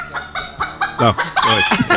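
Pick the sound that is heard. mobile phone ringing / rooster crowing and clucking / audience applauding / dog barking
rooster crowing and clucking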